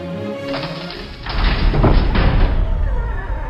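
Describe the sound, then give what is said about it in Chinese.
In the Aladdin story, the heavy door to an underground cave opens easily, with a low, grinding rumble that swells after a soft start and keeps scraping steadily for a few seconds, loud and unbroken, with no voices. “阿拉丁听话去开门，沉重的门居然很轻易的就被打开了。”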